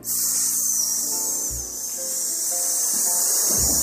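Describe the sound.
A voice makes a steady, sustained hissing "sss" like the soft white noise played for babies, held fairly loud for about four seconds with faint low tones beneath.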